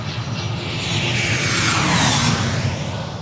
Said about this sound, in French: nous amorçons notre descente. Le pilote, depuis sa cabine, nous sommes d'attacher nos ceintures pour l'atterrissage. La suite attendra. L'avion progressivement perd de l'altitude et nous laisse, silencieux, découvrir l'immensité de Los Angeles.